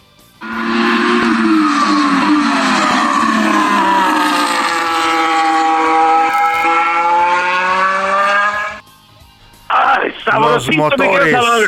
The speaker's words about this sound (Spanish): Hoy se encendieron los motores por primera ocasión ya en las prácticas y así suena el RB18 que estarán pilotando Max Verstappen, el campeón, y Sergio Checo Pérez.